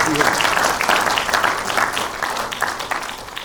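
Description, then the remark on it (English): An audience claps steadily for a few seconds, a dense, even patter of many hands at fairly constant loudness, fading only slightly toward the end. “You guys got a, a beautiful thing here, and I think you should clap, by the way, when I say that.”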